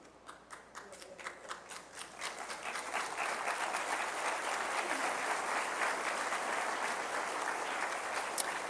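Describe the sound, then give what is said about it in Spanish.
An audience claps steadily, starting as a few scattered claps and swelling within a few seconds into dense, sustained applause that stays fairly even to the end, with no talking. Some of the women present did not applaud. “Algunas no aplaudieron porque les cayó el asunto, ¿no?”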